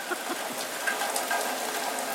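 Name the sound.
rain falling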